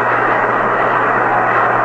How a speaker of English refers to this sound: applause is for Hector Lopez as he comes into the Yankee dugout.